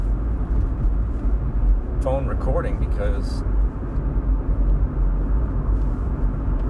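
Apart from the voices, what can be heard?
car driving on highway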